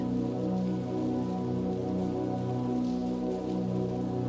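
rain falling at night

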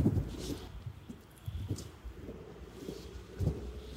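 strong wind outdoors

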